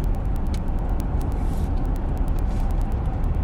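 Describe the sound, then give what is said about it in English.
Steady, loud road noise from inside a moving car: a dense low rumble that never lets up, with faint rapid ticking sounds riding on top. No one speaks. “Again, I apologize for the road noise.”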